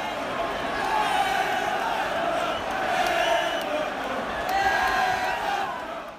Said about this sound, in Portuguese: o que a gente escuta aí é a torcida do Liverpool cantando, porque realmente a torcida do Arsenal, para variar, começou muito fraca, né?